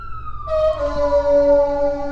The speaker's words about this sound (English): they got a little fire truck coming by, which comes by every day. I don't know why. Can't be that many fires in the state of California.